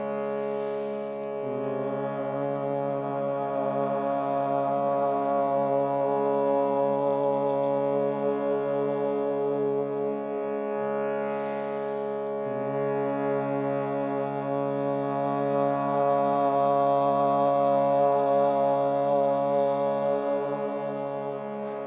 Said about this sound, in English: And now on your exhalation, create the ah sound. Start with the hum and move into the ah. allow the ah to open up into the o sound.